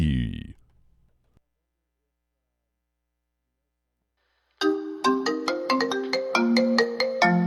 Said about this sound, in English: Your phone is ringing.